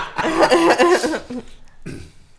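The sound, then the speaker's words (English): A fairly loud run of harsh, rapid coughs, then a brief pause and one more softer cough. No talking. “I'm coughing my brains out anyway”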